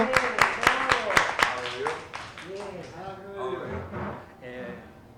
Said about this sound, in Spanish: Así que yo le pido un aplauso.